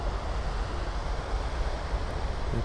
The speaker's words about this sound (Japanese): 今日も海からお届けしているんですが、波の音も聞こえると思うんですが、海の家がですね、建設ラッシュで、その作っている音が入ってしまうかもしれないです。